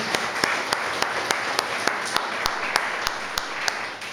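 An audience applauds steadily, a dense wash of many hands clapping with sharper individual claps popping out in a loose, regular rhythm throughout.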